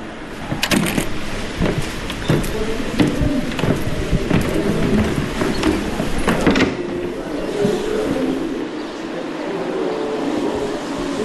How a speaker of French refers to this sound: Il est 10h du matin, petite pluie, on est boulevard du Cange à Amiens